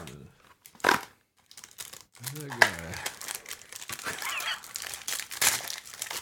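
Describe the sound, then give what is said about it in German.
Crinkling and tearing of plastic snack wrapping as a chocolate-banana snack is opened, sharp bursts of rustle on and off for several seconds, with a person briefly speaking partway through; half of the snack breaks on opening. “Hälfte, Hälfte zerbrochen beim Aufmachen.”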